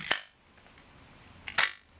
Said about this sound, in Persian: الان شاتر باز شد نور وارد میشه از طریق لنز خب. میخوره به فیلم و شاتر در مدت کوتاه بسته میشه